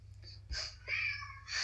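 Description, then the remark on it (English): A cat meows a few times in quick succession, the cries fairly faint, over a steady low electrical hum. “Clearly, a cat feels the same way too.”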